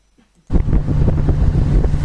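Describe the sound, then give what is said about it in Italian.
After a brief silence, a fishing boat's diesel engines roar in at full ahead as it speeds toward the port of Sestri, a loud steady rumble with a droning hum, mixed with rushing wind and water noise. “Dopodiché, però, mi risveglio mentre il Savonarola sta correndo a macchina avanti tutta verso il porto di Sestri.”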